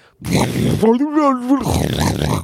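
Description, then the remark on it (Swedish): A voice mimics the rough, rushing roar of wind buffeting a phone microphone during a call taken outdoors in town, breathy noisy bursts around a brief wavering hum, loud, with no real words. “Eh, så att om det till exempel skulle man, man går ute på stan, man tar ett samtal, det börjar blåsa massor det låter ju inte asnice för den som är på andra änden då.”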